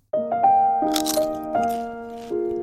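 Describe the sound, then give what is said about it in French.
A few crisp, crunchy bites at uneven intervals, fairly loud, layered over steady sustained musical tones that shift pitch a couple of times. “Croustille, hein”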